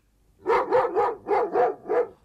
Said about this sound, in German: Wuff, wuff, der Hund, der Hund, der Hund. Der Hund.